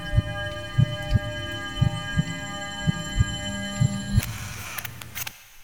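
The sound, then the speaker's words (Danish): Muffled, steady thudding as a man works on a car on the other side of a wall, knocking roughly twice a second over a constant electrical hum, with no one speaking. “din far, han står og arbejder på en bil mm. ude bag væggen her et sted.”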